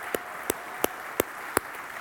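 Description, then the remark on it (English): Applause on Mother's Day morning from a group applauding the mothers who were asked to stand: five sharp, evenly spaced claps stand out over a steady, softer wash of clapping noise, with no voices heard. “Uh, we want to applaud for you.”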